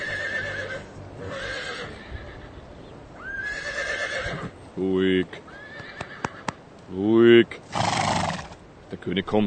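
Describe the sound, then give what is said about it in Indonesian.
A horse whinnies loudly a couple of times, its high, wavering neighs rising over steady hoofbeats clip-clopping along as it pulls a sleigh on a sleigh ride. “Dengarkan pertama adegan perjalanan dengan kereta peluncur yang romantis itu.”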